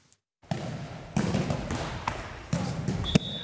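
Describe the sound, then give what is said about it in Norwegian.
A handball bounces on a court floor, five or six dull thumps landing at uneven intervals over a steady hum of background noise, with a short high squeak near the end. “Håndballspill har en egen rytme.”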